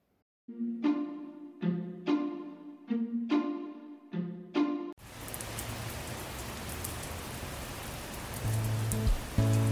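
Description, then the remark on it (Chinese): A few bright, repeated musical notes ring out, then give way to steady, dense rain falling with a continuous hiss, while low tones come in near the end. “乌龟慢慢看见窗外的雨滴，开心的呼喊着：“哦，下雨了！”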